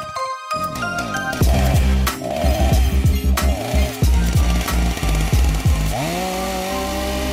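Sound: chainsaw sawing sound effect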